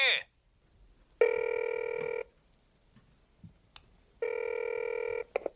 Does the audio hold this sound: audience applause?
no